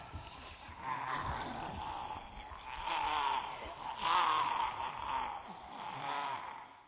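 A chorus of overlapping zombie moans and groans rises and falls continuously, raspy and drawn out, with a few swells of louder wailing and no clear speech.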